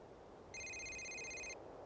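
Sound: phone ringing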